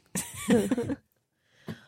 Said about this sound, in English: You're all coughing.